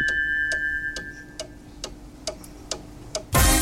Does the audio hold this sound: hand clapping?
no